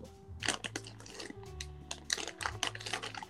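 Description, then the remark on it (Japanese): Bursts of crunching from someone chewing a crisp snack, squid tempura, several irregular crackly bites in a row, moderately loud, with faint low voice sounds underneath. “いやめっちゃお菓子の音入って カシャカシャカシャすいませんね、ちょっとイカ、イカの天ぷらって言った。”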